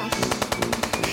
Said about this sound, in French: je ne savais pas qu'il était équipé de mitraillettes rotatives